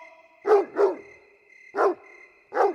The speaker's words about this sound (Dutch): De hond begon luider en luider te blaffen en te trekken aan de leiband.